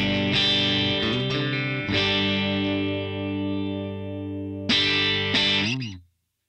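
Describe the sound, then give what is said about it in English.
Electric guitar through a Matchless DC30-style amp model: a few strummed chords ring out with warm, slightly overdriven tone, sustaining and decaying before a final chord is cut off. “the match the what's called their 1993 match D3”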